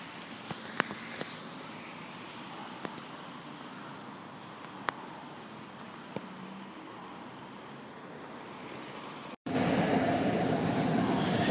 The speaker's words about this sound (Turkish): Yağmura daha fazla dayanmak imkansızdı. İki tramvay bekleyeceğim, gelene kendimi attım. Şimdi geri geri yeşillikleri arkada bırakarak yola devam etmekteyim.